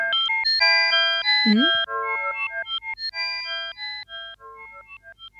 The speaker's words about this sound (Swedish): Vad är det här för ljud då? Old, old Music Box heter den.